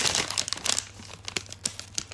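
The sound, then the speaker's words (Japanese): A plastic packet of bath salts crinkles and rustles in irregular bursts of crisp crackling, busiest at the start and then in sparser sharp crinkles, with a low steady hum underneath and no talking. “あのバスソルトあ入浴剤っていうのかなんか謎に”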